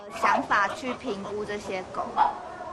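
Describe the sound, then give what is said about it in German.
Several dogs bark and yip in quick, overlapping bursts, fairly loud, with a whining edge between barks, in an animal shelter that takes in 50 new dogs a day. “50 neue Hunde pro Tag, allein in diesem Tierheim.”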